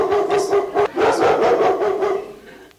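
A dog barks repeatedly in quick, excited bursts, several sharp yaps running together before trailing off.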